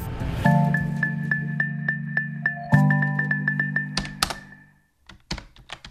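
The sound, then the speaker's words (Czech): Keys tapped on a computer keyboard while typing into an internet search engine: a run of quick, crisp clicks in uneven bursts, with a brief pause before a final flurry, over a steady low hum that drops out near the end. “Zadávám do vyhledávače a hned vidím, že tohle přísloví najdu v internetové verzi akademického slovníku současné češtiny.”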